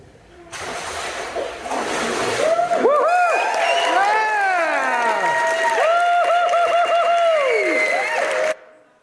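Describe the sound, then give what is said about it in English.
A crowd in a played video clip breaks into loud cheering, many overlapping voices whooping with rising and falling pitches over a broad wash of noise, sustained for several seconds before cutting off abruptly. “The event and then the cheer.”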